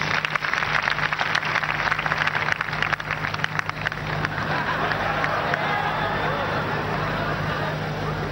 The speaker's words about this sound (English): Clap for them, please, as they come forward.